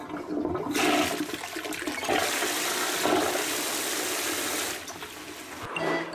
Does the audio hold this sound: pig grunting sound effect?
no